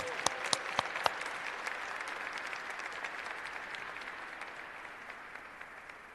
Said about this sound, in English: Let's give the mayor another round of applause. Thank you, Madam Mayor.